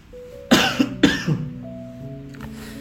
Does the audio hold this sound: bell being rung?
no